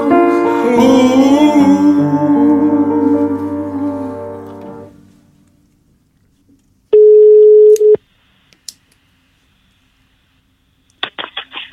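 Music fades out, then a loud, steady telephone ringing tone sounds once for about a second as a call is placed home to a mother, followed by a faint click and a few short electronic dialing beeps at the end.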